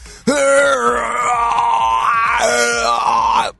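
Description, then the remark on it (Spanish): A voice imitates a gym weightlifter's grunt: one long, strained, groaning vocal push held for about three seconds, loud and gravelly, with a brief shift in pitch midway before cutting off. “voy a dar un ejemplo porque hoy, hoy estaba en el gimnasio en la mañana y no sé, yo creo que todo todos nos pasa, escuchamos el típico de...”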